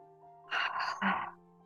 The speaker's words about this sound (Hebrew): אז בואו ניקח נשימה עמוקה.